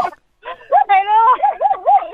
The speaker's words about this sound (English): Sorry, the, I have a doggy in the car here.